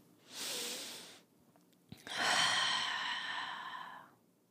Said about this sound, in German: Einfach auch mal nur so atmen und Geräusche machen.